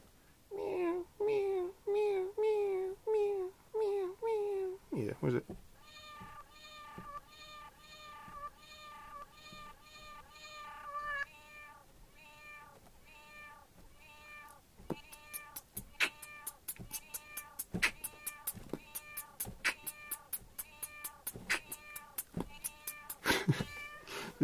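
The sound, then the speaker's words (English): A cat's meows repeat in quick, rhythmic succession, then are chopped and looped into a musical pattern, joined later by sharp percussive hits. No one speaks. “and then put the and then put the cat on there.”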